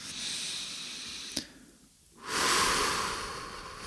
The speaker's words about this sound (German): Wenn du das Fenster öffnest oder die Tür öffnest und du trittst kurz raus und atmest einmal richtig tief durch,